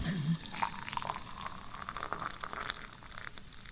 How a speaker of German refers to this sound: So, das Wasser kocht. Das ging schnell jetzt.